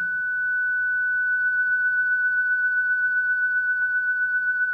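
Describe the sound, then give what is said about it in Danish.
A steady, fairly loud sine tone holds throughout with a slight, regular wobble, as if its pitch is gently bobbing up and down, over a faint low background rumble. “Her kan man næsten høre det, at øh, den hopper op og ned i, i tonehøjden.”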